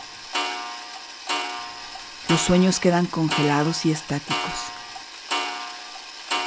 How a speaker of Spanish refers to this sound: Y entonces suena el reloj de ébano en el salón de terciopelo, y por un momento todo se aquieta. Todo se acalla salvo la voz del reloj.